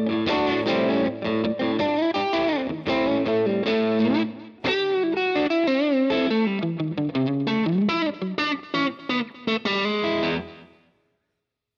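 A distorted electric guitar, a Mexican-made fifties classic model from 2003, plays a busy, driving riff with bent notes and rapid chord stabs, loud and continuous for about ten seconds before cutting off into silence.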